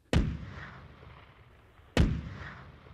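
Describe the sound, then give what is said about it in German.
Two heavy cannon salute shots boom about two seconds apart, each a sharp blast with a long rumbling echo that rolls away before the next one fires; part of a 101-gun salute in Munich on 25 August 1845 celebrating the birth of the Bavarian heir to the throne, later Ludwig II. “101 Kanonenschüsse feierten am Montag, den 25. August 1845 in München, die Geburt des bayerischen Thronfolgers, des späteren Ludwig II.”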